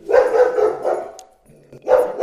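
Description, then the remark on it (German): A pet dog barks loudly, a quick run of three or four barks, then a short pause before one more bark. No one speaks. “Mein Hund. Wartet eine Sekunde.”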